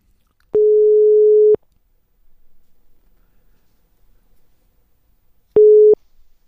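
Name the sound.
telephone ringback tone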